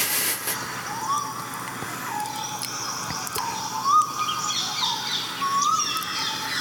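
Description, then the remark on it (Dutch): Birdsong at an Indian ashram, with a repeated bright rising whistle from one particular bird recurring every couple of seconds over a dense background of chirps and calls from several birds. “steeds één bepaald vogeltje.”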